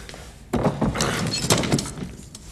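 A door being forced open in a break-in, with a sudden loud crash followed by several heavy thuds and splintering, cracking impacts, with no talking.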